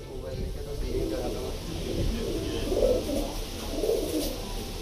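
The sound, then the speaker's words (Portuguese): Pigeons coo in soft, throaty warbles that repeat and overlap throughout, several birds, over a steady low background hum. “À medida que envelhecem, os pombos são levados até um determinado local para serem soltos e voarem de volta ao abrigo por instinto.”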